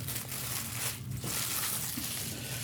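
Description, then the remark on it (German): Plastic foil crinkles and rustles steadily as dough is wrapped in it, a soft continuous crackling with one brief lull partway through and no talking. “Deine Folie, wenn ich darf. Dann wickle ich meinen Teig jetzt ein.”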